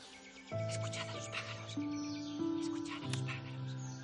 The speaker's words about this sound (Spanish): Hay que encontrar a los pájaros, hay que encontrarlos. Quiero que escuchéis a los pájaros, ¿vale?